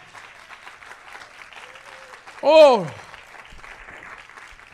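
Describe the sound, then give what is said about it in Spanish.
An audience gives a loud round of applause for the Lord during a morning church service. The clapping is steady and sustained throughout, and partway through a voice rises above it in a loud, drawn-out sliding exclamation before the clapping carries on. “Alguien le da un aplauso fuerte al Señor en esta mañana.”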